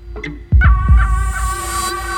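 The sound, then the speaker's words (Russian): Deep, muffled heartbeat thumps land in quick succession as the heart beats faster and the pulse quickens, over a steady low droning hum, with faint higher tones ringing above; no one speaks. “сердце начинает биться чаще.”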